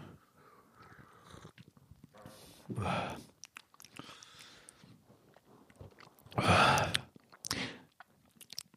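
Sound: slurping a drink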